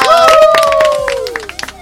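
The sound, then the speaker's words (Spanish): A burst of applause with rapid, dense claps under a long, loud cheering shout that slowly falls in pitch, then a few scattered claps as it fades out. “Venga, un aplauso, un aplauso. ¡Bravo”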